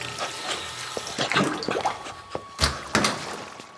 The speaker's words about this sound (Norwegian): Steng av vannet. Jeg holdt på å drukne.